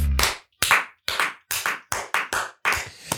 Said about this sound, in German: Ich grätsche jetzt direkt rein in unseren Applaus hier. Ich, ich check das nicht, warum wir immer so lang klatschen. Warum sollen wir denn nicht lang klatschen?